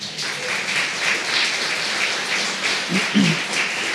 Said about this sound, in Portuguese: Você podia ter dado um aplauso a Jesus agora.